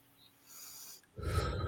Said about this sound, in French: Prends le temps de continuer d'être connecté à ta respiration. On inspire profondément. On expire.